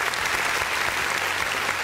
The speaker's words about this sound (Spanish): Y bajo esto le podemos dar un fuerte aplauso a nuestros auspiciadores que nos acompañan semana a semana. Aplausos, por favor, virtuales.